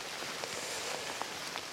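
rain falling outdoors

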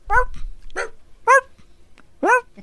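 dog barking

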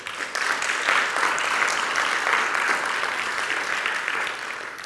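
round of applause

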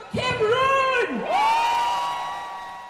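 crowd cheering

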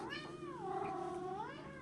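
cat meowing

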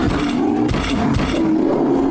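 bear roaring

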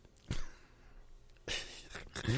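sniffing

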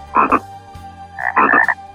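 toad croaking

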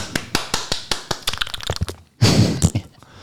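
applause

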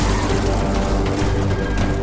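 car crash

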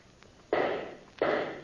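rifle shot

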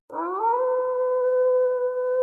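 distant wolf howl

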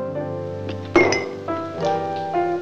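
glass knocked over

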